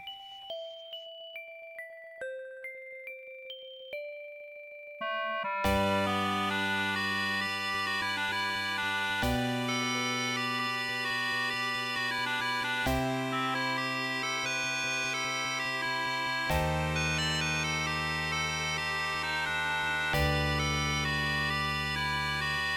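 An 8-bit chiptune rendition of a Christmas song: a few seconds of sparse, bleepy melody notes, then a loud, full arrangement with bright buzzy synth tones and a steady bass pulse, no voices.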